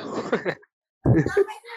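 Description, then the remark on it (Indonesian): A young child's voice comes through in two short bursts of chatter separated by a brief silence, moderately loud, with no other talking. “Nah, jadi jadi ah, eh, itu suara anak siapa ya?”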